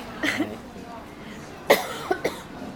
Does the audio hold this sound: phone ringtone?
no